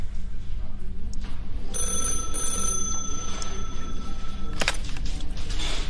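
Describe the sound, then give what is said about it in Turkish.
A telephone rings in one steady, bright electronic tone lasting about three seconds, then cuts off abruptly, over a constant low background rumble. “Görgü tanığının bu telefonu küçük Tali'nin belki de hayatını kurtarmıştı”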